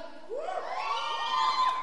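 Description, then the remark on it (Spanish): A live audience section cheers and shouts together, a dense swell of many overlapping voices with rising whoops, sustained and fairly loud for the whole moment. “Bien, acá, acá está la gente oriental, la gente oriental, la barra brava oriental ahí súper firme.”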